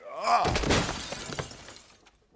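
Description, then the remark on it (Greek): A glass living-room coffee table shatters in a loud crash as a man, shoved hard, falls backward onto it and his neck strikes its glass corner; shards tinkle and scatter for about two seconds before fading. A brief vocal cry comes just before the break. “Ε, έπειτα από ένα δυνατό σπρόξιμο παραπάτησε και σοριάστηκε με την πλάτη πάνω στο τραπεζάκι του σαλονιού. Ο σβέρκος του χτύπησε στη γυαλίνη γωνία.”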